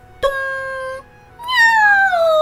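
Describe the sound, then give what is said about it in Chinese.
A cat, hit on the head by a spoon, yowls twice, loud and alone: a first steady, high-pitched cry, then after a short pause a longer wail that slides downward in pitch. “谁叫了一声？ 猫。”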